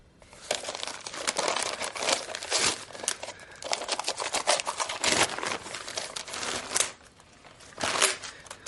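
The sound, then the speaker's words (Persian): Wrapping paper on a gift containing a glass crinkles and rustles continuously for several seconds, fairly loud, with irregular bursts of crackling and tearing as the package is opened. No one speaks. “ببین چی گرفتم مرات لیوان گرفتم برات بازش کن بازش کن”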